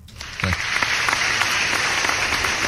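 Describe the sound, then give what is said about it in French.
A brief burst of applause from a crowd, steady dense clapping that starts abruptly and holds at an even level for a couple of seconds, with faint low murmuring beneath. “Je pense que ça vaut un petit run of applause, sérieux, pour la gang qui a organisé ça.”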